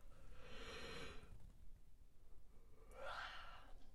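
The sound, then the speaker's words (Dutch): A breathy yawn: a long drawn-in breath followed by a short voiced, rising exhale a moment later, with no talking. “As always, even gapen tijdens een podcast.”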